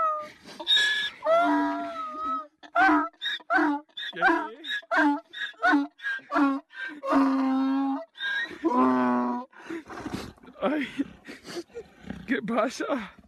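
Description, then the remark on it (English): A donkey in Spain brays loudly and repeatedly at its reunion with its owner after two months apart, long wheezing see-saw calls rising and falling over several seconds, with the man's voice speaking Spanish in between. “This man in Spain had an emotional reunion with his donkey after being separated for two months because of quarantine.”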